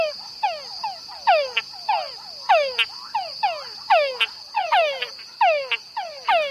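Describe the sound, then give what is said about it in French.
A chorus of male túngara frogs of Panama gathered at the edge of a pond after heavy rain at nightfall: overlapping, downward-sweeping whining calls repeat every half second or so, loud and insistent, over a steady high-pitched insect drone. “Comme je vous le disais dans une précédente émission, après une pluie abondante, à la tombée de la nuit, les messieurs Tungara se réunissent au bord d'une mare et commencent à chanter en chœur.”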